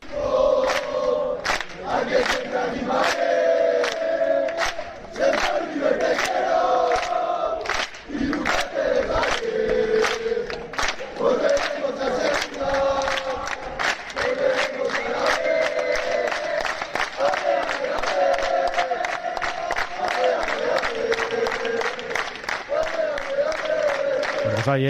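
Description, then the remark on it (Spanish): Hundreds of football fans cheer and chant continuously and loudly as they welcome and block the arriving team bus, with rhythmic claps and shouts rising over a dense roar of voices throughout. “con cientos de aficionados del River que de hecho bloqueaban el autobús y luego ya sí, unos segunditos después, ya bajaban los integrantes de la expedición verdinegra.”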